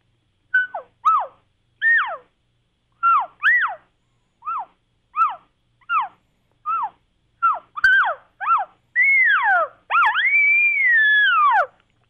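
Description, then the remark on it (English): A mouth call, a sound plate or palate plate, imitates cow and calf chirps: a steady series of short, high, downward-sliding chirps, clear, ending in two longer, louder drawn-out mews. No talking. “And then here's a mouth call. This is a sound plate or palate plate.”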